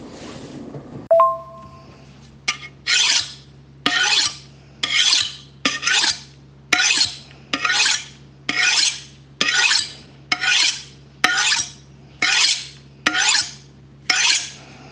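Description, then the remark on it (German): A knife is sharpened with steady, evenly spaced rasping strokes, about a dozen of them, fairly loud, after a brief metallic ring at the start. No one speaks. “ASMR für Serienkiller. Ja? Messerschleifen.”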